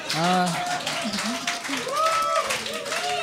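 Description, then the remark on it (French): An audience applauds with a steady, dense patter of clapping, while voices shout and talk loudly over it throughout. “Puis vous êtes dégueulasse d'applaudir.”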